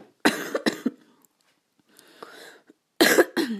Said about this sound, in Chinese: 我已经忍着咳嗽忍到现在了，我终于憋不住要咳一声了，咳嗽还没好。